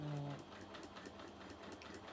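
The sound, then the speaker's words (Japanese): A sewing machine runs steadily, its needle pounding out a rapid, even rhythm of stitches after a brief low motor hum at the start, sewing a zigzag stitch along the edge of fabric to finish the raw edge. “ちょっと端ミシンをねジグザグかけておるんですよどうしてもその布端の始末がシンプルにやっぱ行いたいなっていうのがあるのででねジグザグミシンをかけてる”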